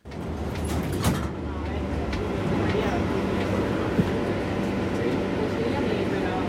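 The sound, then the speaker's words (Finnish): Inside a moving metro train in Barcelona, Spain, a steady rumble underlies a crowd of overlapping voices chattering at once, with a brief clunk early on and a faint click later. “Tässä ääntä puhekielon keskeltä barcelonalaisesta metrosta.”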